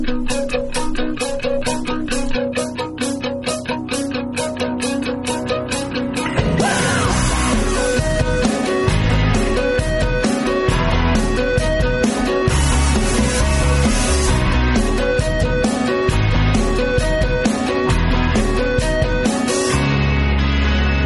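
An upbeat power pop song opens with a steady, ticking rhythm before the full band crashes in after a few seconds, with driving drums and bright, loud guitars.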